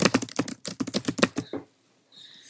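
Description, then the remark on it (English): Rapid typing on a computer keyboard, a brisk burst of clattering keystrokes in an uneven rhythm that stops abruptly, leaving near silence. “I can't look anything up on my computer either because it'll sound like”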